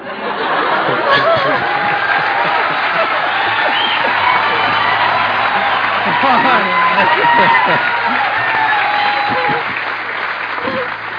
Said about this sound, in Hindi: जो अभी तालियां बजा रहे थे सब हाँ, दिल्ली के लड़के ये ना चीज हाँ।